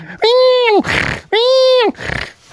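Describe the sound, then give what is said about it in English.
A voice imitates a squealing pig twice, each loud, high, strained squeal followed by a rough, breathy snort, with no other sounds around them. “They make like a squealing pig sound.”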